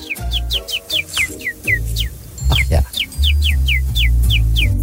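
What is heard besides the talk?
canary singing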